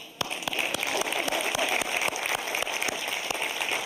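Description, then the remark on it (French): A steady wash of applause from many hands, dense crackling claps with a few sharper individual claps standing out, fairly loud and continuous with no talking over it. “C'est à moi de vous applaudir.”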